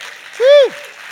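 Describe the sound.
Steady applause from an audience welcoming a guest onto the stage fills the background, and a single rising-and-falling whoop from a voice cuts through briefly in the middle.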